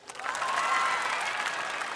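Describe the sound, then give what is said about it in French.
A live audience applauds on a performer's call, a dense steady patter of many hands clapping at an even, fairly loud level throughout, with no voices standing out. “Applaudissez ceux que leurs parents gonflent.”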